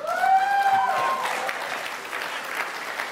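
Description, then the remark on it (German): Steady audience applause fills the whole stretch, dense, with a few high whistles ringing out near the start before the clapping carries on alone. “Die haben alle die Eier jetzt zu klatschen, aber wenn eine Bombe auf Berlin fällt, stehen die vom Bunker und klopfen, lass mich rein, ich bin Pazifist.”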